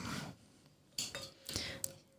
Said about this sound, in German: Dankeschön für das klangvolle Anreichen des Glases. Ich liebe dieses Geräusch. Ein Geräusch, das mein Leben begleitet.